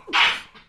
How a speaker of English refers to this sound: Bless you.